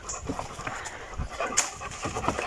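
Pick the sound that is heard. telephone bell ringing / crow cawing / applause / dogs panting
dogs panting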